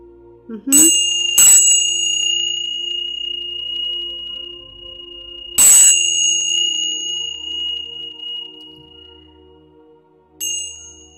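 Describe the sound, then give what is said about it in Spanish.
Small cymbals are struck as a calling sound, four times: a quick pair, then a single strike, then a softer final one. Each leaves a bright, sustained metallic ring that slowly fades, with no talking. “Y también vamos a, llamarlos con este sonido que es, son los címbalos.”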